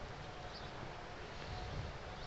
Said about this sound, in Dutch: Het water van het fontein, dat ruist nog steeds mooi.